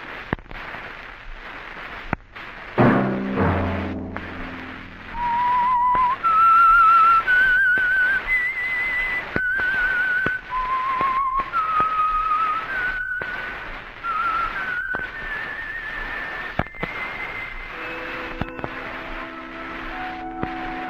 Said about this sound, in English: Let that whistle be your signal for the Signal Oil program, The Whistler, each Sunday night at this same time.